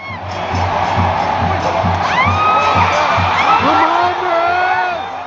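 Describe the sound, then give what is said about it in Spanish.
A loud stadium crowd at a football match roars continuously as fans boo Saldívar during his exit, boos blending with cheers and scattered whistles and yells, while a low rhythmic drumbeat pulses steadily underneath. “Es una mezcla entre abucheo y festejo.”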